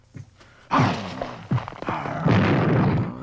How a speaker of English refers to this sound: Beaker's lab being smashed up.